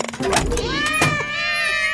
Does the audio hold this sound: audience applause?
no